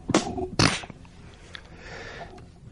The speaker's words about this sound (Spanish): La premura de la acción le hizo tragar demasiado aire, el cual, tal como había entrado, salió, seguido de una tos aguzada por el bochorno que terminó dando salida al vino por las narices.